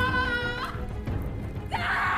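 A woman screams in anguish while giving birth, a loud, strained, high-pitched wail that breaks off and then rises again into a second piercing cry, with no talking.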